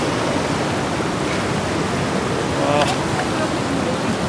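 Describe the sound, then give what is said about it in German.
A steady, dense, loud rush of flowing river water fills the whole stretch at a river crossing on a hiking route in Georgia, with a brief faint voice surfacing partway through. “Kommen wir da rüber über den Fluss?”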